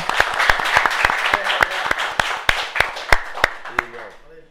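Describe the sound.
A round of applause from a small audience for an audience member invited to sit at the table, with loud, sharp claps falling into a steady rhythm over a bed of crowd noise, fading out as a voice begins to speak.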